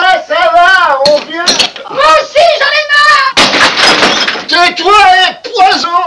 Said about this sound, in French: moi une scène que j'adore dans le film, c'est la scène où on, simule la scène du ménage, où on casse les assiettes.